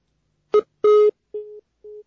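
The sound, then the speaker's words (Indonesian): A telephone busy tone after a listener's call to a broadcast phone-in line drops: four short, steady electronic beeps in an even on-off rhythm, the first two loud and harsh, the last two fainter, with no voices. “Baik, mohon maaf tampaknya terputus.”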